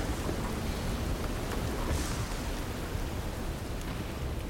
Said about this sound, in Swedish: Mm, ja, smaskandet hörs knappt över det här regnet nu som bara öser ner där utanför. Det är knappt som ni liksom ser ut genom det här fönstret.